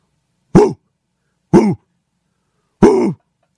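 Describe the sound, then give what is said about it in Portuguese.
A person imitates a dog barking with three short, rough, throaty barks spaced about a second apart, loud, with a coughing quality and silence in between. “Eu sou péssimo para imitar latida de cachorro, você consegue?”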